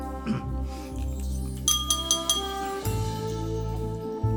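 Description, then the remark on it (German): Glasses clink together for a toast, a quick cluster of three or four bright, ringing taps in the middle, over a steady low hum with no talking. “Prost! Prosit! Prosit!”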